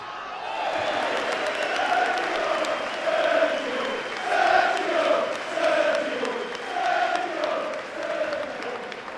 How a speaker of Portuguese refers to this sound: Aplausos para o Sérgio Agüero sendo substituído, faltando mais ou menos oito minutos de jogo.